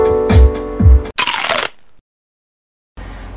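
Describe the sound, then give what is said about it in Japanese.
Two deep kick thumps over a sustained tonal chord, followed by a short burst of bright, shaky, rattling hi-hat noise, then a gap of silence before the beat resumes faintly; a candidate hi-hat sample auditioned while choosing kick, snare and hi-hat patterns for a beat. “このハットかちょっとシャカシャカした感じのこっちの方が好きかな音が抜けるのはこのこっちなんですけどチッチッチッチッの方がでもこっちの方が好きかなって気がする”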